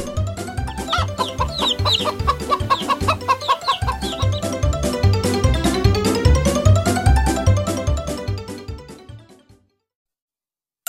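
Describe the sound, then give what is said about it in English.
A hen clucks over and over in a steady, bouncy rhythm, loud, with dense layered sound throughout before it cuts off near the end. “hen has some chicks.”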